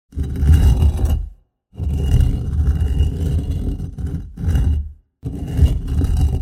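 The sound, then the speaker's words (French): A heavy stone is pushed, scraping and grinding along the ground in four loud pushes, each a rough gritty drag separated by brief pauses of silence. “Tu as trouvé C'était le son d'une pierre qui est poussée.”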